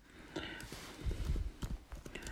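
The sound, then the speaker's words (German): Several sharp mouse clicks tap out at an irregular pace, fairly quiet, with a soft low rumble underneath and no talking, as someone navigates an online Bible on a computer. “Ich habe heute mal Online-Bibel. Das, das Blättern nicht immer so. Also wenn ihr jetzt aber das Klicken hört, dann wisst ihr warum.”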